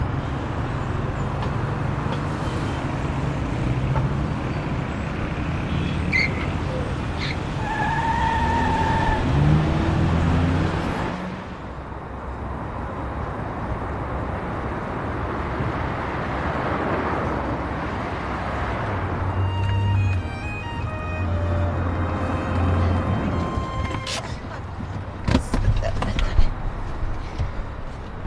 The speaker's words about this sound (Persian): اون جلو دست راست بگیر چشم بزنیم این ترافیک رو رد کنیم